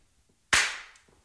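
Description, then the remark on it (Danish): One sharp hand clap made out into a room to hear its reverberation, bright and loud, followed by a reverberant tail that fades over roughly half a second before quiet returns. “kan du lige lave bare et klap ud i rummet, så man kan høre rumklangen?”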